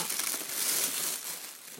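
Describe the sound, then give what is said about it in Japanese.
A bag of Jaga Pokkuru, a Hokkaido-limited crispy potato snack, crinkles and rustles as it's pulled open, a continuous crackly, papery sound lasting a couple of seconds with fairly steady loudness and no talking. “これ袋の音とか大丈夫かなああれだじゃがポックル美味しいやつだこれなんだっけえこれ北海道限定なんだわかんない北海道限定みたいじゃがポックルサクサクのポテトお菓子ですね”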